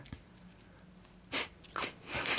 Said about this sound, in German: Und jetzt probier mal, also wenn ich runterzähle, oder ich sage los, fünfmal hintereinander, sofort hintereinander zu schlucken.